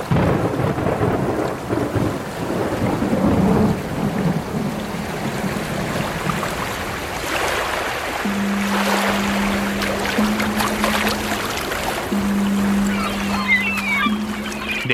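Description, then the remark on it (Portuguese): A thunderstorm at sea: heavy rain hisses steadily while deep thunder rumbles and rolls, with churning water throughout and a low, steady droning tone joining in the second half. “No entanto, uma tormenta paralisou o possível resgate e dispersou a patrulha aérea, deixando Lin mais uma vez perdido no mar.”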